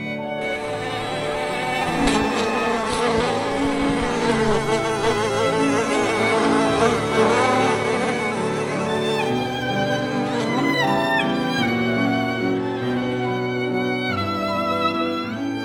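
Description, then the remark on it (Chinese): A group of flies flying down together, buzzing steadily for the whole stretch, several droning, wavering tones layered into a dense swarm hum that slides up and down in pitch at an even, fairly loud level. “其他苍蝇一阵犹豫后，也都跟着飞下去。”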